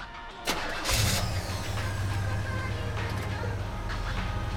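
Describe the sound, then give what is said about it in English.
A car engine cranks briefly with a whirring starter, then catches and settles into a steady, low rumbling idle that continues to the end. “Come on, start the car.”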